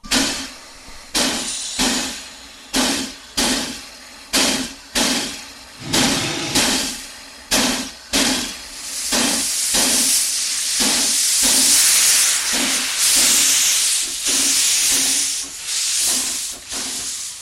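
A stationary steam locomotive, ready minutes before departure, gives a steady series of rhythmic puffing bursts before breaking into a long, loud, continuous hiss of escaping steam. No one speaks.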